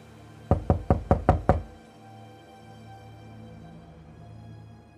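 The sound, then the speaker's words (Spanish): Six rapid, loud knocks on a bedroom door in a quick, insistent, sharp burst, followed by a quiet low hum with no further knocking. “Aquí estoy, detrás de la puerta, aterrado, imaginando quién estará detrás de la puerta, llamando con tanta insistencia.”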